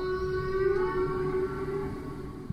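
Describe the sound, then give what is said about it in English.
A recording of a whale singing, made in about 1961: a long, steady call hums throughout, a sustained tonal moan with layered harmonics, fairly loud over a low underwater rumble and no talking. “The Odyssey also collects recordings of whales singing”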